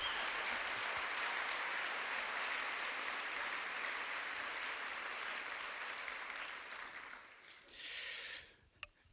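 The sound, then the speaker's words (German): An audience claps steadily in a dense, sustained burst of applause that fills the room, then fades out toward the end with a few last scattered claps. “Und lass uns Michel einen herzlichen Applaus geben.”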